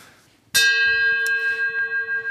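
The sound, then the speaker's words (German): A single bell strikes sharply and rings on with a bright, shimmering tone that sustains and wavers gently as it slowly fades. Before the strike there is only a faint, quiet background. “Machen wir jetzt, wir haben ja auch keine Glocke. Ja, das, die kann ich doch einfach reinschneiden.”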